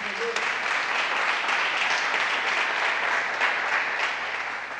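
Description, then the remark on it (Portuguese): An audience applauds steadily for Jesus, a dense, continuous wash of many hands clapping at an even loudness for several seconds before easing slightly at the end. “Quem está aqui, dá um aplauso a Jesus aí.”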